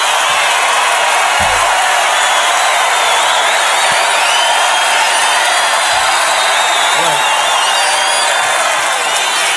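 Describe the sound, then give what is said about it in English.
A large Nebraska crowd roars and cheers loudly and continuously after a speaker at the podium says Nebraska, a dense wall of voices and whoops that holds steady for the whole stretch with no single speaker standing out. “Knocks him back from the podium because that's the first time he said Nebraska, and it's a Nebraska crowd.”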